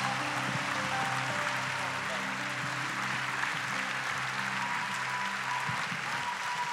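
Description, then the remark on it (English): A church audience applauds, clapping their hands for Jesus: dense, steady clapping sustained for about seven seconds without letting up, with low held musical tones and indistinct voices underneath. “Come on, let's clap our hands for Jesus.”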